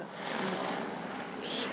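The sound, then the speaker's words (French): A steady, washing drone of a helicopter passing overhead in Nantes, France, even in loudness, with a brief brighter hiss near the end and no clear talking. “Je parlais de domination masculine par rapport à l'hélicoptère parce que j'habite à Nantes et pour ma part, les hélicoptères qui passent régulièrement sont toujours des hélicoptères”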